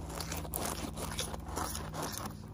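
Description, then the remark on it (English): Soft patting and rubbing right against a microphone to pat out noise, a few muffled thumps over steady scratchy rustling and a low hum, with no one speaking. “Okay, and I'm just going to I'm just going to hopefully pat out some of the some of the noise and see if that helps. I'm Just gonna pat it, pat it, pat it, and sort of.”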